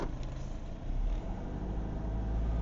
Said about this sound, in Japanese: 車で帰ってるんですけどもうガソリンももうペッタペタねえ